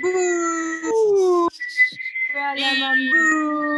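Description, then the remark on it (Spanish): A loud burst of jeering whistles of disapproval, several long sustained tones overlapping and sliding in pitch, with a brief break midway before the whistling resumes. “Yo creo que merece pifia. ¿Lo pifiamos?”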